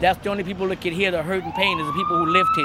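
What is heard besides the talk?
police siren passing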